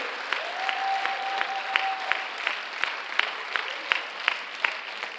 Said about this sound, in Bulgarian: О, ръкопляскай с вяра, ако ще ръкопляскаш, понеже не съм те молил. Там отзад също.